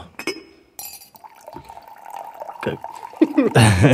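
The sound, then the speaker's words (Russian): Tea is poured into a glass in a steady trickle whose pitch slowly rises as it fills, opening with a light glassy clink and ending in a louder rustling burst. “У нас наливают чай там просто.”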